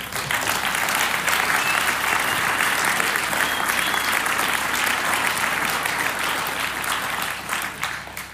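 Sustained applause from a large audience, given for God, a dense wash of clapping that stays steady and loud for several seconds before starting to thin out near the end.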